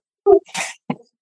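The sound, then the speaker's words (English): A dog gives a quick sneeze or cough: a short snorting burst, a longer breathy rush, then a small final snort, fairly loud, with no talking. “Sorry, that's my dog.”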